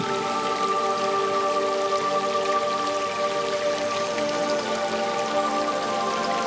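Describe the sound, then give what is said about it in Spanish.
Steady rain patters densely and evenly throughout a forest, with a faint sustained hum of tones underneath, giving a continuous, enveloping outdoor ambience with no voices. “Y escuchas el sonido del bosque, del tiempo, escuchas el sonido del silencio”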